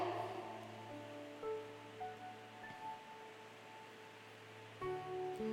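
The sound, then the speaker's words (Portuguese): Steady rain hisses continuously in a soft, even wash of noise, with a faint low hum and a few thin tonal lines running beneath it. No voices are heard. “é chuva. É que eu estou vendo um monte de gente falando que não é a volta de Jesus ainda. É chuva.”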